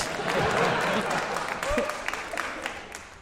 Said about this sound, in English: Yeah, thank you. Your lacklustre applause is noted.